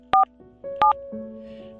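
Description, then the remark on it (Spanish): Telephone keypad tones beep as someone dials a number again, in two quick bursts of short, clear electronic dual-tone presses, separated by a brief pause, over a faint steady hum in the background. “Le marco otra vez a ver si me contesta.”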